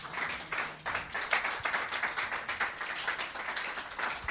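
A crowd claps steadily for a few seconds, a dense crackle of many hands at moderate loudness, with no one speaking over it.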